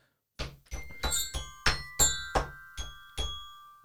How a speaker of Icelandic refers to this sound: Þú veit ekki bjöllina? Nei, ég vil ekki sjá þessar bjöllur Guðlega svolítið skemmtileg Nei, burt með þessar bjöllur